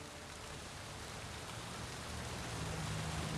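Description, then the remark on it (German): Steady evening rain falling on a street outside the Waldorf Astoria hotel in a dense, continuous hiss of drops, even throughout, with a faint low hum underneath and no voices. “Mit einem Regenschirm hilft er ihnen, trocken in den Wagen zu kommen. Auf der anderen Straßenseite wird Conrad Hilton währenddessen nass bis auf die Knochen.”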